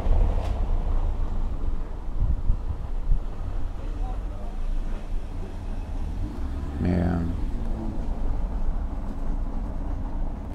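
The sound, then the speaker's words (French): A steady stream of cars rolls past, a continuous low rumble of traffic with one brief, sharper swell partway through, with no clear talking. “C'est un balai de voiture, fait chier quoi.”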